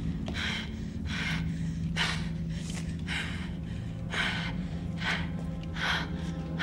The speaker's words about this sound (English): The only sound we hear during the scene is her frantic breathing as she grasps for something, anything, in this inky darkness while the killer watches her silently with night vision goggles.